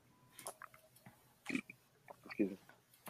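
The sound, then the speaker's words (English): Someone chews food, making a few irregular wet smacks and soft crunches spread over a few seconds, fairly quiet with brief pauses between bites. “hang on, I'm chewing food.”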